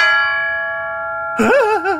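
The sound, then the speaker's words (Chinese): A large bell struck with a hammer rings on with a steady, layered metallic hum of overtones that slowly fades, until a person's voice abruptly cuts in over the tail of the ring. “我的天哪，这么响，别人会听见的，赶紧捂住它。”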